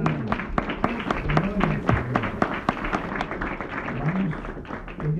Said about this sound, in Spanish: Un aplauso.